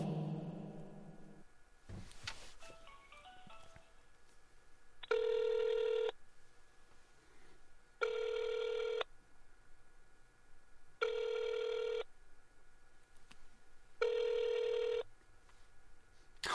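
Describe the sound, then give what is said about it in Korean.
A short burst of dialing tones, then a telephone ringback tone sounding four times, each about a second long and evenly spaced roughly three seconds apart, with nobody picking up. “지금은 전화를 받지 않습니다. 다음에 다시 걸어주시기 바랍니다.”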